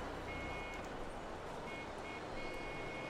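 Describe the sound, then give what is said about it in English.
Steady, loud vehicle rumble fills an ambulance bay in falling snow while a high-pitched reversing beep sounds in repeated bursts, pausing briefly midway. No one speaks. “Uh, Mark is standing out in the ambulance bay watching the snow.”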